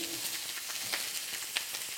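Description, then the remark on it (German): Two already-cooked steaks are seared for roasting flavour in a hot pan with foamed fat and chopped parsley, with a steady hiss peppered with sharp little pops and crackles from the spitting fat; nobody speaks. “So, jetzt geben wir hier unsere beiden Steaks, die nötigen Röstaromen, ne, weil gegart ist es in dem Fall jetzt schon, auf dem Punkt, wie wir es haben möchten.”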